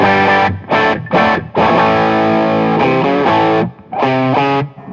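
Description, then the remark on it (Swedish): Electric guitar with a humbucker pickup, played through an overdrive pedal: loud chords, with three quick choppy stabs, then longer ringing chord changes and a final sustained strum, with no voices. “Den här har lite mera förstärkarspräck”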